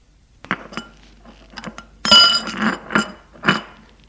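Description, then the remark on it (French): Dishes and cutlery clink at a breakfast table in a kitchen as a father and mother eat breakfast: a series of short, bright chinks and clatters of glass and metal, irregular in rhythm, with a louder cluster of rattles midway and no voices. “Donc, Eugène, à la cuisine, retrouve son père et sa mère qui prennent leur petit déjeuner.”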